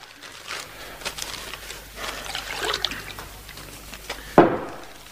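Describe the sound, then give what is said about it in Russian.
Water trickles and splashes as it is poured into a glass, a steady stream lasting a few seconds, ending with a brief sharp clink near the end. “Выпей воды.”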